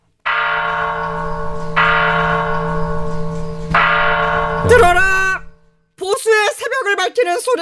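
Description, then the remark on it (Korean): A large bell tolls three times at a slow, even pace, each deep strike ringing on and overlapping the next; a rooster crows, then voices start talking. “진짜 종소리도 들리고 네, 닭도 울고 이거 진짜 새벽 같네.”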